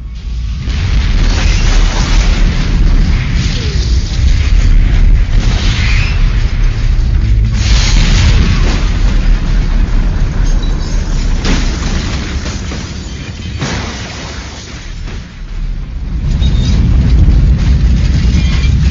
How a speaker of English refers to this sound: The car bomb that was placed underneath the vehicle nearly vaporized the car, along with the cars on both sides of it.